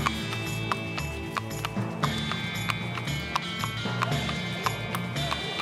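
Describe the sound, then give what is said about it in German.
Horse hooves clip-clop in a steady, even rhythm, sharp and clear, over a continuous droning musical background that runs throughout. “Also ab auf das Pferd, ab in die Prärie und Vollgas Richtung Thema.”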